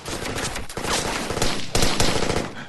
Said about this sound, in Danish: Men det går helt amok, fordi der bliver skudt og skudt og skudt.